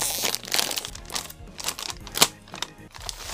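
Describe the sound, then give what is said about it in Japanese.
A crinkly plastic bag of spicy Pizza Potato chips being handled and torn open for a tasting, with a run of loud rustling and crackling bursts, one sharp crunch standing out near the middle. “袋に入ってますね、あ、袋だねはい、はい、はい、よくあるやつですよ、うん、で開けますねこの開ける音とかもいいっすよね、はい、テンション上がりますね”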